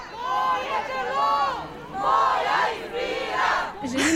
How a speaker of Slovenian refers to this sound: Ob tem je v Ljubljani potekal protishod, ki so ga pripravili zagovorniki pravice do splava. Skupini je morala ločevati policija.